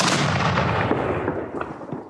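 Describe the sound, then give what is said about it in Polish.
A massive explosion, the second blast of a huge fire aboard a boat in a role-play game story, bursts out at full loudness, then rolls into a long, rumbling boom with crackling debris that slowly fades over about two seconds. No voices are heard. “Nastąpił drugi wybuch.”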